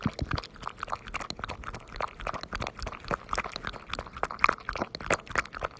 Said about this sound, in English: This is my dog's slurping milk.